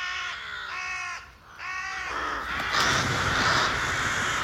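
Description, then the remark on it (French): Harsh, overlapping caws from a corvid colony taking flight all at once in the face of a threat, jackdaws adding to the cacophony: three strong bursts of grating calls followed by a dense, noisy clamour of many birds calling at once, loud throughout with no talking. “C'est le chahut général, des choucas et des pilles s'ajoutent à la cacophonie.”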